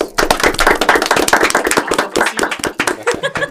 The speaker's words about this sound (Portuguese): Palmas.